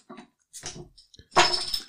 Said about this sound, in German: Ich mache mir jetzt ein dunkles Weizen auf.